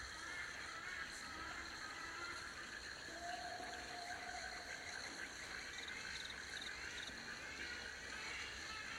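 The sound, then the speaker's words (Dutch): A waterfall at the edge of a plateau, on a brook, pours in a steady, unbroken rush of white noise that holds at an even loudness throughout, with no voices and no pauses. “Naar die prachtige waterval die je al hoort.”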